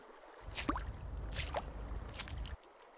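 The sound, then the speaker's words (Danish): Splashing, sloshing water as someone wades out through shallows back onto land after picking a bottle up out of the water, with a few wet squishes and drips, moderately loud for about two seconds before it stops. “Han tager flasken op af vandet og går ind på land igen.”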